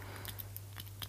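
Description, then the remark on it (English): A Sakura Sumo Grip 0.5 mechanical pencil clicks four or five times in quick, slightly uneven succession, crisp but quiet, over a steady low electrical hum with no talking. “This is the sound of it clicking.”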